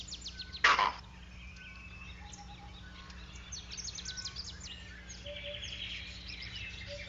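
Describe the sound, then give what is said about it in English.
A superb starling gives one sudden, harsh, loud shriek near the start, an alarm call warning of danger on the ground. Afterward only faint chirps and twittering from other birds continue in the background. “Vervets understand the starling's vocabulary. The bird shrieks a warning, shh, danger on the ground, and the monkeys repeat it using their own term, and everyone runs for it.”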